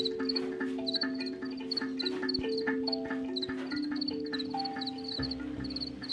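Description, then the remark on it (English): A dense chorus of crickets chirps in quick, repeated high pulses, steady, layered over lower sustained droning tones, with no one speaking. “Everyone has some sort of positive association with the sound of cricket singing.”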